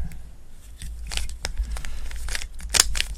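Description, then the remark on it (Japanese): Crisp plastic clicks and clacks as the layers of a Chinese-made speed cube sold as recommended for beginners are twisted by hand to scramble it, coming in quick irregular bursts over a low steady hum, with no one speaking. “このこのキューブはねあのこれは初心者におすすめって書かれてた中国製のやつなまあ中国製のやつって言うとあれだけど、あの、スピードキューブは全部中国製なんですよ。”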